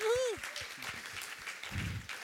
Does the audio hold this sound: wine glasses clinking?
no